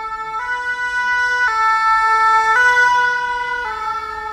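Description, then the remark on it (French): A fire engine's two-tone siren alternates steadily between high and low pitches, loud, as the firefighters come toward the speaker and pass by, with faint traffic rumble underneath and no one speaking. “Merci les, les pompiers. Ils viennent de mon côté, c'est génial, on va attendre de laisser passer.”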